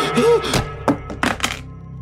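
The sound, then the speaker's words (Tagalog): A black cellphone is flung and lands with a hard thunk, followed by a few quicker knocks as it bounces and clatters to rest, over a low steady hum. “Naibato ko na naman ang itim na cellphone”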